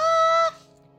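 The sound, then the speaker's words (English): A bird clucks once, a single loud, harsh, honking call lasting about half a second, then cutting off abruptly into a faint lingering tone and near silence. “What's the bird doing?”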